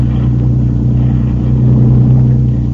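A loud motorboat engine drones steadily with a deep, throbbing hum as the boat swings around, swelling slightly near the end as it revs. No voices are heard.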